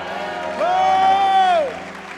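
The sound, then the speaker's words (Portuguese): An audience claps and cheers to the Lord in a steady wash of applause, while a single high, sustained shout rises over the crowd for about a second before fading back into the clapping. “Dê um brado ao Senhor e aplaudo nesse de lugar.”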